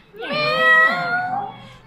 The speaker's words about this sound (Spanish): Dicen que un muerto aparece nomás se llega la noche, que a veces se oyen aullidos y otros nomás maullidos.